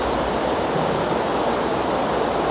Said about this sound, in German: Ich befinde mich gerade an einem Fluss, mitten in einer Stadt in Europa. Und das, was ihr dort ein bisschen hört, das ist das Wasser, das hier so seine Stromschnellen, ganz kleine in Wirklichkeit hat.